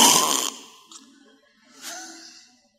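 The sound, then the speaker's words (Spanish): A voice imitates a wife snoring: a loud, rough, breathy snort, then two softer wheezing snores trailing off, with no talking. “Ahí está mi esposa, cómo ronca.”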